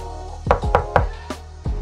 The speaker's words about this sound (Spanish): Toqué la puerta tres veces.